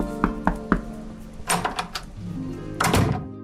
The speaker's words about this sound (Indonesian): Barney mengetuk pintu ruangan atasannya.